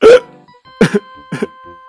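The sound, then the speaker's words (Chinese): Three short, voiced hiccups at uneven intervals, the first loudest, each with a whimpering, tearful pitch, likely a voice imitating a kitten and a puppy in a story hiccuping while crying, with a faint sustained tone between them. “结果他们的嗝声又带上了哭腔。”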